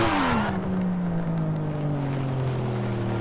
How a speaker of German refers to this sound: Radio aus. Dann hören wir nämlich den intensiven Sound dieses Autos.